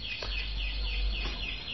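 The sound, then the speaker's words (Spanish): An alarm rings with a continuous high-pitched electronic warble that rises and falls in quick, regular cycles, steady and moderately loud with no voices over it, while a shop window is being robbed. “lindo está la alarma ahí sonando, ¿no? Re molesta.”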